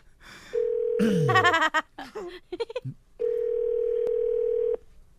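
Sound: telephone dial tone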